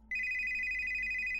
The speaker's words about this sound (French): C'était le téléphone fixe. Me souvenant des règles, j'ai attrapé le téléphone et je l'ai porté à mon oreille, en veillant à garder un œil sur l'heure.